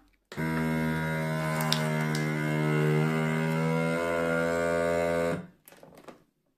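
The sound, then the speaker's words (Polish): A vacuum sealer runs with a loud, steady droning hum for about five seconds, its pitch shifting slightly as it draws the air out of a bag holding a Redback coin, then cuts off abruptly, followed by a brief click and rustle. “I jedyne co nam pozostaje to wciśnięcie tego przycisku, który odessa nam powietrze z Redbeka. Będzie głośno, uwaga.”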